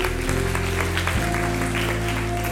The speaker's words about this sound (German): Hey, das nächste Gebet ist, ihr dürft auch gern klatschen, weil es ist ein Grund zu feiern, wenn Menschen diese Entscheidung treffen.